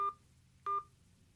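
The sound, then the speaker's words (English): Two short telephone keypad tones beep in sequence as digits of a credit card expiration number are entered in an automated phone payment line, each a crisp dual-pitched electronic blip, separated by a brief pause over a faint low hum, with no talking. “Enter your four-digit expiration number now, followed by the pound sign.”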